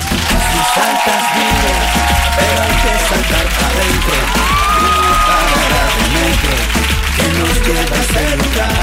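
A crowd at a Cadena 100 radio event applauds and cheers loudly and steadily to welcome a guest artist, with dense clapping mixed with whoops and shouts that hold at a constant level throughout.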